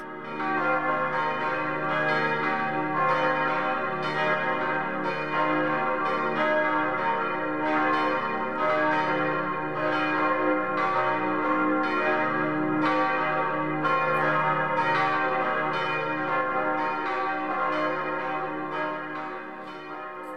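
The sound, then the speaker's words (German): A four-bell bronze church peal rings continuously from the freestanding tower of the modern parish church of St. Josef in the Miesbach district, with a deep C1 fundamental tone. Deep tones overlap in a steady, rolling pattern of strikes with rich lingering harmonics, loud and full throughout with no voices. “Das eindrucksvolle, vierstimmige Bronzegeläute im freistehenden Turm der modernen Kirche zeichnet sich nicht nur durch besonderen Wohlklang aus, sondern gehört im Grundton C1 auch zu den tontiefsten im Landkreis Miesbach.”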